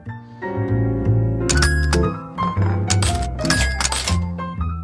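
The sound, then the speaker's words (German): Bright, bouncy music from the mobile game Tiny Tower Vegas being played, with repeated metallic clinks of coins scattering in bursts over the melody, loud and close, with no talking. “Das äh, klingt hier so, wenn man das äh, spielt.”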